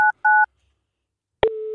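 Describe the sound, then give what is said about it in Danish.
Two short dual-tone keypad beeps from a phone being dialed to call a man, a brief pause, then a click followed by a steady lower tone as the call connects. No one speaks. “jeg har Mikkels nummer her, jeg tænker lige, prøve at ringe op til ham”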